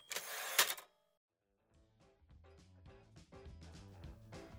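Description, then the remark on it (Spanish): A record shop door swings open with a quick, bright jingle of a bell overhead, then after a brief pause music begins playing steadily in the background. “La puerta del negocio se abre y la campanita sobre ella suena dando aviso.”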